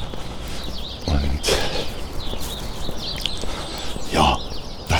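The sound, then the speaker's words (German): Birds sing and chirp outdoors with a motorway not far away, their calls scattered over a steady background hiss of motorway noise, with a couple of brief rustling bursts breaking in. “Man hört sie wahrscheinlich so im hinteren Grundrauschen, aber die Vögel werden stärker.”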